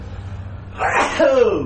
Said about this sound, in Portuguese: Vou espirrar.